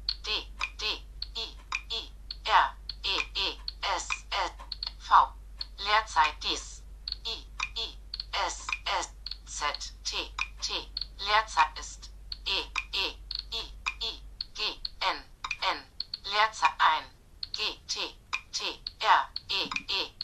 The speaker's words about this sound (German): Also man kann schon gut auf dem Touchscreen schreiben, liegt aber auch daran, weil ich mich an die Tastatur gewöhnt habe und hm, wenn man sich eine PC-Tastatur im Kopf gut vorstellen kann, ist das nicht so schlimm.